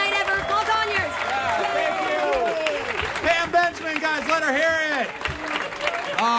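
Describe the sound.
An audience claps and cheers steadily at the end of a stand-up comedy set at the Punchline on Sunday, with overlapping whoops and voices layered over a dense wash of applause that stays at an even level from start to finish.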